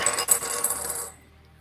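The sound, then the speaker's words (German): A six-sided die, rolled for a perception check in a tabletop role-playing game, rattles and clatters across a hard surface, a quick burst of bright, rapid clicks lasting about a second before it settles and falls quiet. “Da habe ich einen starken Sechserwürfel.”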